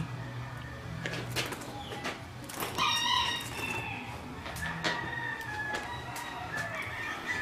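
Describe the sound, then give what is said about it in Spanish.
A rooster crows over a noisy farmyard, its drawn-out call rising near the middle, while short sharp clucks and scratchy bursts break in repeatedly around it. No one speaks. “En el cambio, según como el gallo, si está muy entero, se la dejo igual y si no, la colgamos un poco.”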